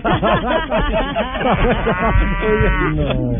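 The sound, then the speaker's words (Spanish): Cows moo loudly, several drawn-out, overlapping lows with a sustained, wavering call toward the end. “dígale que me mande unas vacas, pero de las que dan leche, porque las mías no dan tanta leche.”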